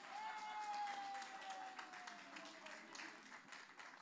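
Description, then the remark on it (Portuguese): Audience applause from the wives in the audience, a dense, steady patter of many hands clapping for about four seconds, with a faint sustained whistle-like tone drifting slightly downward in pitch underneath. “Quando se fala bem das esposas, todas aplaudem.”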